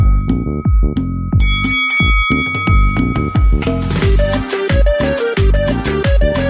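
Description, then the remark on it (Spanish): A boxing ring bell marking Round 4 on the comedy show El show del perro Chato Café rings out with a few bright, ringing dings over loud, punchy music with a driving beat. “¿Por qué me agarró la, ma- la campana?”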